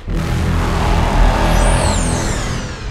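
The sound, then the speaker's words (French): A loud, continuous mechanical rumble with a grinding, scraping drone, dense low-end roar and faint high whining tones sliding above it, sustained throughout with no speech. “Un grondement mécanique m'arrache de mon observation et me fait tituber.”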